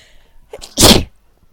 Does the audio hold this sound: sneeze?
yes